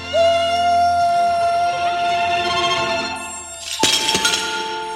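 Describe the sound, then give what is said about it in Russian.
A steady whistling tone hangs for several seconds, then a sudden loud crash of shattering glass bursts in as a greenhouse frame breaks, followed by a brief clatter of falling shards. No one speaks. “Куда это он упал, интересно? Парник. Ну, в каком растят огурцы?”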